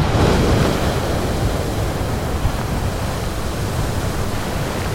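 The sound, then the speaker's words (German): The Strokkur geyser, a hot spring in the Haukadalur valley in Iceland, erupts roughly every 10 minutes. Its boiling water column spouts with a loud, steady roaring rush of water and spray that holds for several seconds without pause, with no voices. “Also wir stehen direkt vor einer heißen Quelle, die rund um die Uhr gluckert und blubbert und ungefähr alle 10 Minuten eine kochende Wassersäule in die Höhe spuckt.”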